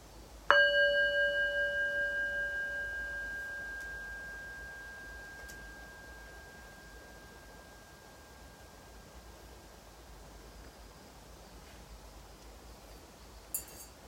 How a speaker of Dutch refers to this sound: En dan hoor je het geluid van de klankschaals eindsignaal van deze meditatie.